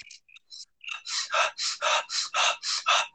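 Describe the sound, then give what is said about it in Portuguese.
A voice imitates the rapid, panicky over-breathing of a very anxious person: a few short breathy sounds, then about eight quick, loud, airy gasps in steady rhythm, with no talking. “Eu vou reproduzir uma respiração de alguém muito ansioso, ó.”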